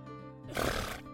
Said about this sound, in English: His paper hooves thudded against the hardwood floor as he let out a bold whinny.